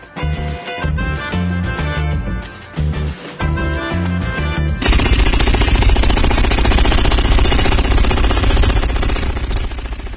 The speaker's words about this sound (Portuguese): entrou a britadeira,